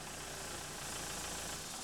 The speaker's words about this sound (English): It's April Fool's Day, 1996. A stolen Cadillac pulls to the curb in downtown Youngstown.